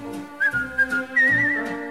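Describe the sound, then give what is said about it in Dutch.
Someone whistles a short, bright melody, a few clear pitched notes rising into a wavering sustained tone, fairly loud with no talking. “Ja, hij had zo goed gekauwd en alle kruimels waren weg en hij floot glashelder.”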